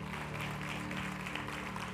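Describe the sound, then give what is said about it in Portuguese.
An audience at a Christian church service applauds in a dense, continuous wash of clapping that holds steady and loud throughout, with a low sustained tone humming beneath it and no voices standing out. “Aplauda mais forte.”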